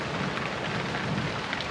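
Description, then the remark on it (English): Steady rain hisses down in a dense, even wash, with a low thunder rumble rolling faintly beneath it; no voices. “Despite the rain, Raina decided against a cloak.”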